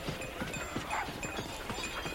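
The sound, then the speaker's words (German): Horse hooves clip-clop in a steady rhythmic pattern, like a horse-drawn carriage moving along, with faint background noise and no voices. “Brielle steigt als zweites ein, das die Kutsche kaum in Bewegung bringt.”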